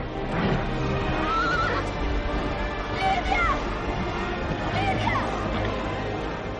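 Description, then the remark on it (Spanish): A horse ridden by the character Lidia gallops with a steady rhythmic beat of hooves while whinnying and neighing repeatedly, loud, with a dense rumbling background throughout. “Lidia galopa.”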